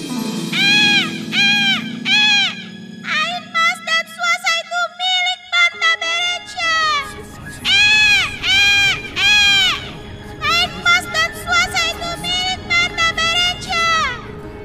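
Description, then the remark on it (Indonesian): An eagle screeches again and again as it flies, in loud, shrill bursts heard at a palace. Some calls are short and clipped, others drawn out, over a low background rumble, with no talking. “Begitu Banta selesai berdoa, tiba-tiba datanglah seekor burung elang yang terbang sambil bersuara.”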